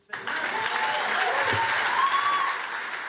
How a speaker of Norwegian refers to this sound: Donald Trump får applaus, om ikke stormende. Men salen er i det minste full.